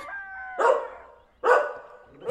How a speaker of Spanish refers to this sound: Ese perro desde hace rato anda ladre y ladre.